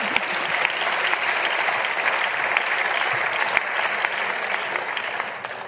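An audience claps steadily throughout, a dense, even wash of many hands at a constant loud level with no voices rising above it, easing only slightly toward the end.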